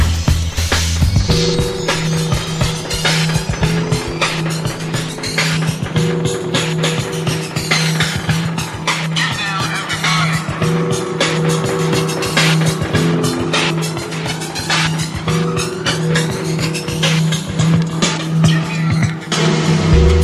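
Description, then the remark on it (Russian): An electronic track plays as a phone ringtone, loud and continuous for the whole stretch, with a steady driving beat, sustained low synth tones and busy bright layers on top, no voices. “Вещица неплохая, но рингтон из нее слабенький.”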